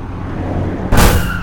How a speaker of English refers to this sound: What the? That glasshouse car just rammed us! Ugh, that was low.